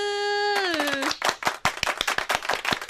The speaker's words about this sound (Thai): คุณผู้ฟังปรบมือ